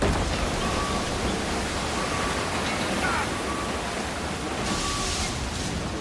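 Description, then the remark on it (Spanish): A dense, steady, loud roar of water pouring into a ship's hull through its starboard side, torn open by the sharp edges of an iceberg, with a faint high tone surfacing briefly now and then and no voices. “El primer oficial que evita una colisión frontal con el iceberg, pero sus afilados bordes rasgan el costado de estribor. El agua empieza a entrar.”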